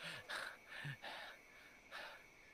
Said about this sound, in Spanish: Te sientes observado y tu respiración comienza a acelerarse más.